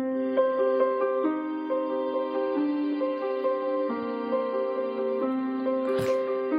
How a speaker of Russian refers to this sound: Ну, вот неоклассика у нас звучит примерно так. Вы все ее слышали.